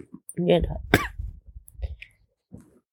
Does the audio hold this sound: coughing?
yes